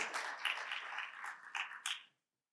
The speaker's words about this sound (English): Yeah, we can clap for these people.